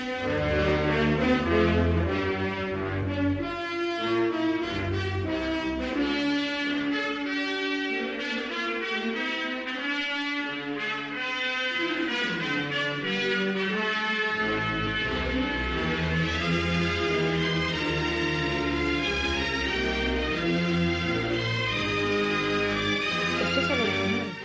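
An electronic track built on a sample of the orchestral soundtrack of Otto Preminger's film Exodus plays loud and continuous, with thick sustained brassy chords and a dense, swelling texture; no one speaks.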